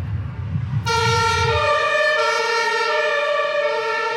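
ambulance siren passing

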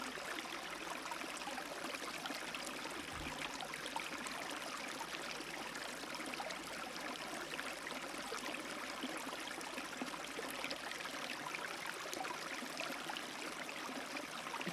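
flowing river water

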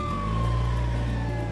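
fire engine siren

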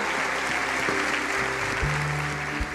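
audience applause

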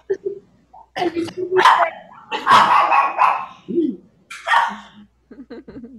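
dog barking

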